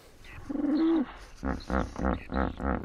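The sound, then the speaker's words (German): A hippopotamus (Hippopotamus amphibius) from Mozambique gives its wheeze-honk call: a short, strained wheeze, then a series of five deep, rhythmic honking bursts, loud, with no one talking over it. “Und jetzt hören wir den berühmten hubi ruf des Hippopotamus amphibius.”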